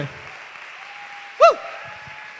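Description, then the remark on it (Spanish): Steady applause from an audience fills the whole stretch, a dense even patter of many hands, with one brief high-pitched cry rising and falling above it midway. “Ah, yo aplaudiría todavía más fuerte.”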